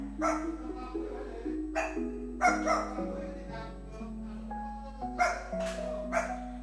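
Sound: dog barking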